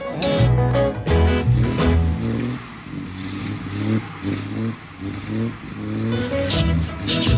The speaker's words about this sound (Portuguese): Como eles não conseguiram uma moto, o engenheiro de som Howard Berry ofereceu seu carrão esportivo para fazer o som de passeio e eles adoraram o resultado.